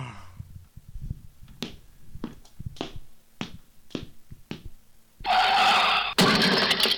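A run of sharp, scattered clicks gives way to a loud, buzzing go-kart engine that suddenly roars in, whining steadily for the last couple of seconds.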